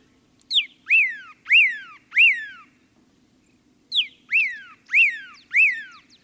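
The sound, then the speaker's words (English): A pyrrhuloxia sings from atop a yucca in a dry arroyo, two bursts of clear, ringing whistles, each a short intro note followed by three or four loud, slurred down-sweeping notes in a steady rhythm, with a soft low hum beneath. “And there's a pyrrhuloxia singing from atop a yucca”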